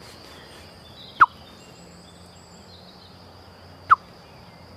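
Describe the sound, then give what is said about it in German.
A voice imitates a blackbird's alarm call for a ground predator: two sharp, clipped 'tuk' notes a few seconds apart, loud against a quiet background with no talking. “Und wenn die Amsel zum Beispiel, wenn die, wenn die jetzt, äh, wenn die äh, einen Feind gesehen hat”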